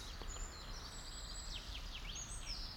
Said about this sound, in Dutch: Vink, winterkoninkje.